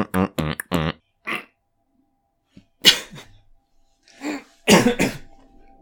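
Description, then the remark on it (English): A burst of several sharp coughs, followed after a pause by a couple more harsh, explosive coughs with a throaty, almost sneeze-like rasp. “I'm going to make that noise as a warning that I'm going to cough.”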